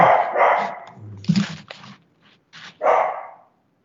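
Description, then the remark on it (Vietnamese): A household dog, barking at visitors, barks several times in an irregular series, loud, with short pauses between the barks and a brief whimpering tone mixed in. “con chó để tôi ờ, tôi tôi ra tôi chỉnh nó tí xíu”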